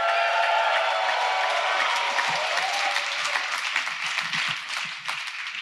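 A live audience applauds steadily for several seconds, a dense crackling wash of many hands clapping with some cheering mixed in, tapering slightly toward the end.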